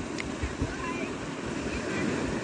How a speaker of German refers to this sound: Hallo ihr Lieben, ich hoffe, das Ostseerauschen im Hintergrund ist nicht so laut, dass man mich nicht hört.